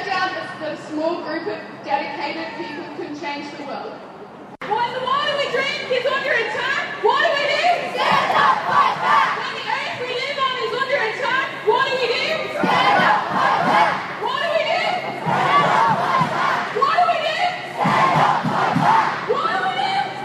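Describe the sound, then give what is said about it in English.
A large crowd at a rally shouts and chants together, loud and sustained, with rising rhythmic bursts of voices and scattered cheers over a constant roar of many people. “And it was a big crowd.”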